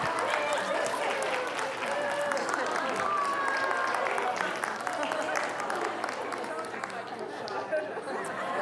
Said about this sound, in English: Let's clap for you.